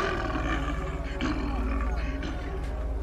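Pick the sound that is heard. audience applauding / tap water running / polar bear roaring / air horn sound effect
polar bear roaring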